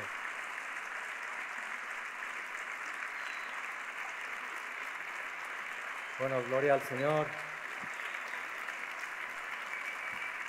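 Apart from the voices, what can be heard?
audience applause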